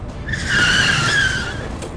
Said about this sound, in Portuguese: Estávamos rodando na faixa certa quando de repente um carro preto saiu do estacionamento na nossa frente. O motorista do táxi pisou no freio, deslizou e escapou do outro carro por um triz.